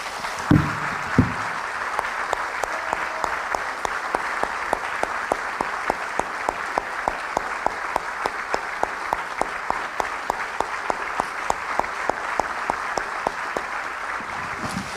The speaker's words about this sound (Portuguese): Eu vou convidar os irmãos para nós antes de tomarmos a ceia, aplaudirmos o Senhor Jesus que está aqui conosco.